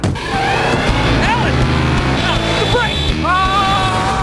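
A car engine revs hard and accelerates while tires squeal in rising, wavering shrieks, loud and continuous throughout the few seconds.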